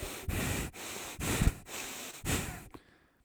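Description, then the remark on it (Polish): A voice imitates the heavy, impatient huffing breaths of someone standing over a seated person: about five loud, forceful exhales in a steady rhythm, ending with a short pause and a soft final puff. “i tam jakiś kaszel i tak dalej, nie wiem na ile to było słychać, pewnie w ogóle, jakieś sapanie”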